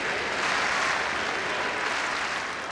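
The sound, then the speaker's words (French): A large, mostly French-speaking tennis crowd applauds steadily, a dense wash of clapping with a few cheers mixed in, loud and continuous from start to finish with no talking, as it cheers a point won by Justine Hénin in her match against Serena Williams. “puis ovationne chaque point gagné par la joueuse.”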